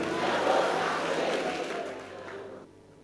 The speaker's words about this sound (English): Clap your hands and shout, levels are changing.